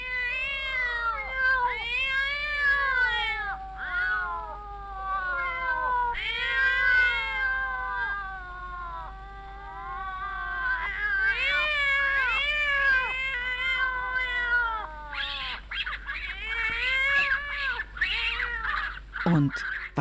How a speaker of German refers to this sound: Die kleinen Katzen machen dieses Fiepen, das sich von draußen wie ein Wimmern anhört. Also eigentlich ist es ganz harmlos, denn es sind ja nur niedliche Katzenkinder.